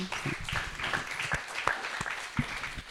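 An audience in the Not theatre applauding, steady dense clapping with scattered sharper individual claps, continuing throughout without speech.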